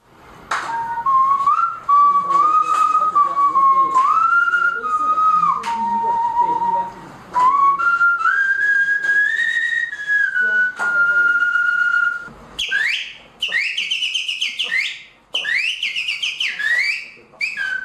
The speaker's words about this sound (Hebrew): גם אלה ששרקו